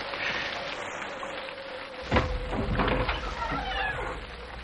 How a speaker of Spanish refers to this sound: La puerta se ha abierto.